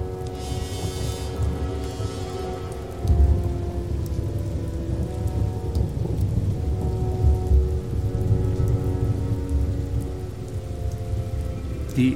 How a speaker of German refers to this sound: Gewitter blieben vor der Elbe stehen, wie in früheren Zeiten. Die Wassermassen aus diesen Wolken fielen auf die Magdeburger Börde bis Gröningen und Halberstadt.